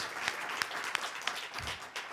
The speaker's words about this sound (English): And the winner is, well, first of all, you both did a great job. so another round of applause for both of our competitors.